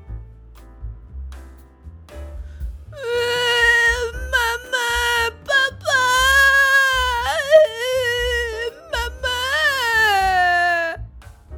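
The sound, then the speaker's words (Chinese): A child, the lost Pink Little Bear character in a children's story, cries loudly in long, wavering wails with brief gasping breaks, starting with softer whimpers, over a low, steady thumping in the background. “这个哭成这样的孩子是粉红小熊吧？”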